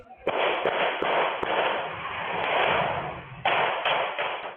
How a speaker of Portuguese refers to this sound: Uma câmera de segurança flagrou a correria. Na gravação, é possível ouvir o barulho dos disparos.